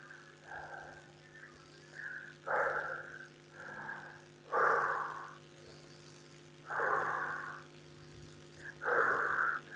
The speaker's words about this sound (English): Also notice I'm breathing in with the nose and out with the mouth.